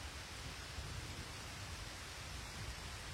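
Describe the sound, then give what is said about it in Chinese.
Heavy rainstorm pouring down in Beijing in a dense, unbroken hiss that fills the whole range evenly and holds a steady, fairly soft level throughout, with no voices or distinct drops standing out. “大概是哗啦哗啦，砸在落雨棚上是砰砰梆梆。”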